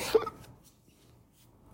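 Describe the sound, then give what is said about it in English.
A single abrupt hiccup bursts out right at the start, sharp, then quickly fades into near silence with only faint background hiss afterward. “Sorry, I got the hiccups there for a second.”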